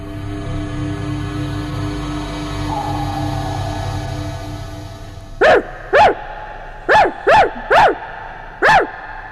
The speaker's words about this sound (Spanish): Los ladridos tirantes le recordaron que no podía aún descansar.